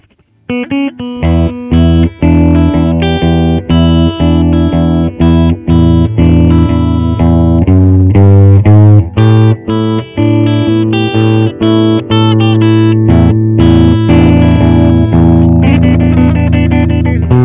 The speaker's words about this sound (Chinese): 那呃，为了保持其他的参数不变，所以我效果器的音箱模拟统一用 Fender 的 Bassman，然后那个麦克风模拟呢，统一用的是 U 六七。好，我们来听一下 Gibson 这个双线圈的声音。